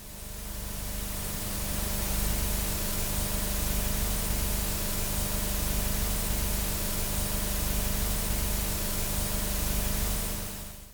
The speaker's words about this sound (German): Wir werden jetzt ein paar Sekunden VHS-Rauschen einspielen, um uns ein bisschen auf das Analoge einzustimmen.